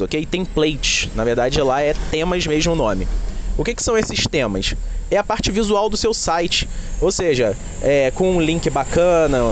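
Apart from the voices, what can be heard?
road traffic noise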